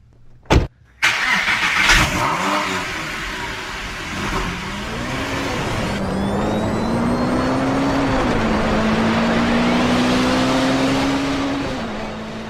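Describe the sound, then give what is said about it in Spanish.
A DeLorean car engine cranks and catches after a sharp click, then settles into a steady idle whose pitch climbs and holds as it revs, a continuous mechanical drone with no talking. “Vámonos a subir al coche, vámonos.”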